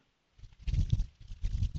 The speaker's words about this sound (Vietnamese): tới cái âm thanh cái đồng hồ này tôi gõ cọc cọc thì bây giờ con mắt không có thấy phải cái lỗ tai nghe